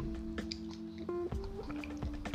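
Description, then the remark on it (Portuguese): Someone drinking water, with a few soft wet sips and swallows in quick succession over a steady low background hum, no talking. “Vocês não estão vendo, eu tô bebendo água.”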